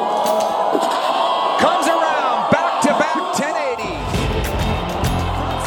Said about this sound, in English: The crowd roars as she finishes the rest of her run.